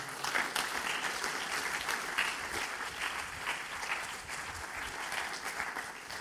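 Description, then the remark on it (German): An audience claps steadily for several seconds as a guest is welcomed onto the stage, a dense, even wash of many hands with no voices rising above it and no clear breaks in the applause. “Und geben wir ihm doch einen herzlichen Applaus auf die Bühne.”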